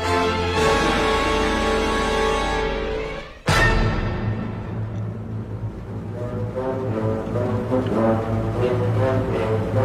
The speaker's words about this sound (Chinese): 耳边我们听到的就是圣彼得堡交响乐团将会在四月二十九号为我们带来的曲目——斯特拉文斯基的第二号《火鸟组曲》。